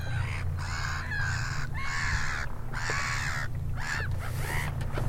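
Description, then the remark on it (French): A gull calls out loudly at Lac d'Aigbelette in France, a string of about six harsh, squawking cries in quick succession, with a low steady rumble running underneath. “La mouette.”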